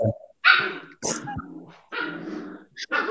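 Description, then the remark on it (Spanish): Several small pet dogs bark in sharp, high-pitched bursts, with brief whimpering and whining between the barks and no one speaking. “es que mis perritos están tocando la”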